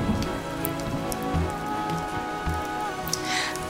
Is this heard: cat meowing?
no